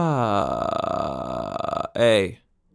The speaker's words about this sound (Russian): Ну, во-первых, нужно разобраться с таким приемом, как штрабас. То же самое смыкание, только мы делаем такой звук.